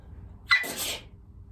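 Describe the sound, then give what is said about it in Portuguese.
A single sharp sneeze, fairly loud: a quick intake followed by a bright, breathy burst that fades in under a second, with quiet background otherwise. “mete mais baixo o som porque eu vou espirrar.”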